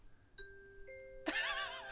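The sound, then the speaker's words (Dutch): A clear two-note ding-dong chime rings out, each tone sustaining, before a loud, bright burst of busy sound abruptly takes over. No one speaks. “We hebben dus een bel. En de bel die gaat af en toe.”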